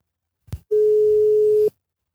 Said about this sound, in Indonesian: Kita coba telepon.